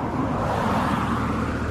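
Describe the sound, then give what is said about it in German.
A car drives by, a loud, steady rumble and rush of tire and engine noise filling the moment without any voices. “Und Achtung, Auto.”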